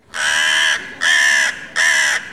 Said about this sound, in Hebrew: השועל הערמומי מחמיא לעורב על קולו היפה ומבקש ממנו לשיר. העורב פותח את פיו בקריאה צורמת